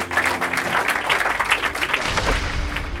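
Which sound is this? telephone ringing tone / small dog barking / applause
applause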